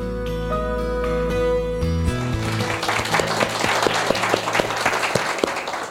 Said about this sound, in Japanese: さあこれ聞いてるリスナーの方ねあれ拍手がということでですねそうなんです今日はですね久しぶりもう2年3年ぶり2年ぶりですね、えー、に、えー、北川先生公開収録ということで、えー、東京某所でですね、えー、開催してるんですけども